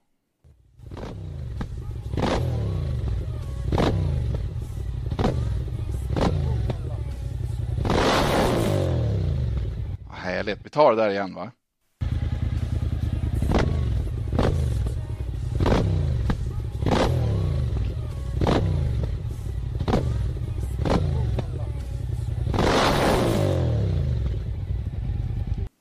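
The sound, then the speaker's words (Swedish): A loud motorcycle engine throbs with a steady lumpy rhythm and swells into revs, cutting out briefly for a short spoken remark before rumbling and revving again. “Ni vet en sån där motorcykel som låter som motorcyklar ska låta.”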